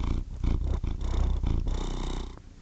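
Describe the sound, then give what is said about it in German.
A male domestic cat lying in front of the speaker purrs right into the microphone, a loud, steady rumble that swells and dips with each breath in a slow, rhythmic pattern. No one speaks. “Und wenn du hier so ein Knurren hörst, so ein Schrubbeln, das ist mein Kater, der liegt hier vor mir und schnurrt.”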